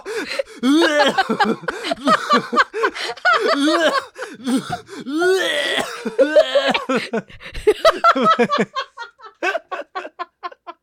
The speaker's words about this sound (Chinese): 哎，你知道我这几集在剪的时候，我一直在剪我们两个的咳嗽声。